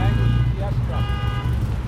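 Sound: car alarm going off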